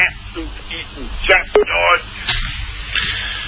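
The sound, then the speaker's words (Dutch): Speech over a thin, tinny phone-in line carries a hollow echo trailing the words, with a short tonal blip partway through and a steady line hiss underneath. “Weer zweem zo'n echo eh, geven.”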